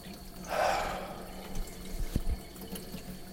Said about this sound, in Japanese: で、こんな風にね、こんな風にね、こんな風にまた、昨日と同じように、13時間前の洗い物を始めるところです。